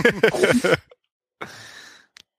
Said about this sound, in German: ich glaube, er ist zumindest noch in der Leitung. Ich höre ihn noch atmen.